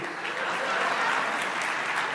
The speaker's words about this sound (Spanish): Y por favor, aplauso para ellos.